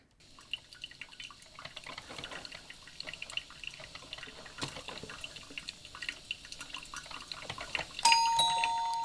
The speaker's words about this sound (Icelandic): Þetta er kaffivél. Hljóð í kaffi að hellast upp á.